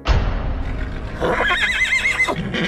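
A horse whinnies loudly, a high, quavering neigh that trembles up and down before dropping to lower snorting tones, with a rumbling low noise underneath throughout.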